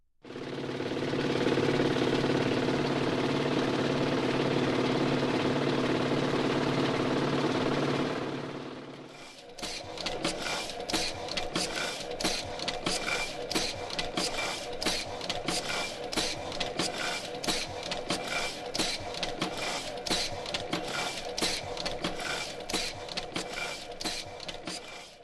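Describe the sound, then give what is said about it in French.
A newspaper printing press runs, printing newspapers: a loud, steady mechanical roar gives way to a fast, relentless rhythmic clatter of machinery that continues without pause. No voices are heard. “Mais heureusement, tant que l'on continue à distribuer des journaux, on continuera aussi à en imprimer.”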